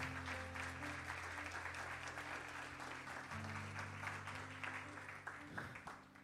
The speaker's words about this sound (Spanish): Si tú lo crees, dale ese, ese aplauso fuerte al Señor.